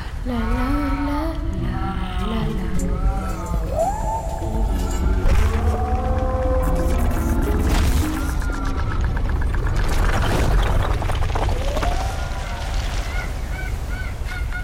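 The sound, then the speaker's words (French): Loud, hoarse honking cries of a pteranodon, reconstructed, on a Pacific coast of North America in the Cretaceous, repeat over a dense rumbling background, rising and falling like an enormous raspy gull, several calls overlapping throughout. “Quel drôle de cri Jamais entendu. On dirait une énorme mouette qui sortirait d'une bronchite carabinée.”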